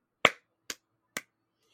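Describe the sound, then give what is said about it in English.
Three sharp hand claps in quick, even succession, made to mark an edit point in a recording, the first one loudest, each dying away at once into silence, with no one speaking. “And I have that those three claps that I can go to and edit um, whatever was near it.”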